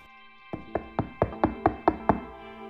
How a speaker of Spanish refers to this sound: tocan la puerta de esta clase.